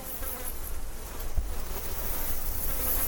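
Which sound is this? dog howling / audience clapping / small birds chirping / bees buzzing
bees buzzing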